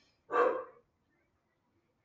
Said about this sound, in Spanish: Este, mi perro.